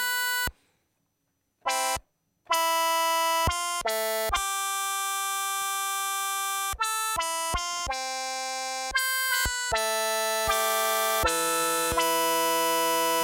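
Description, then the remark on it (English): A bright, buzzy synthesizer with its filter envelope sustain set really high plays a sequence of held notes, each tone staying full and bright for its whole length rather than dulling, with short gaps between some notes and no voices. “Making the sustain really high.”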